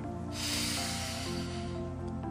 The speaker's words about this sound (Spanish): recuerden cómo es una correcta respiración por nariz. Y para los que no, pues para que se den una probadita y también lo puedan aplicar.